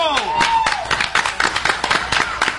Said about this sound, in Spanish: ¡Aplauso!